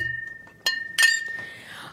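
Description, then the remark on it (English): Two bright clinks of glasses of micheladas touching in a toast, the second louder, with a clear high ring that lingers and fades afterward. “Cheers, cheers, Salud.”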